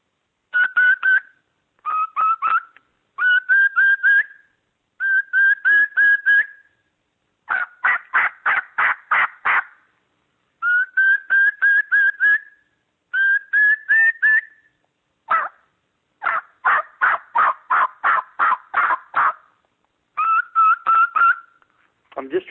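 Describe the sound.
Repeated runs of pleading, whistled yelps, a person making a lost-bird call like lost birds wanting company, fairly loud. The whistle is the high note of the yelp. Each burst strings several quick notes together, and the runs come one after another with short gaps.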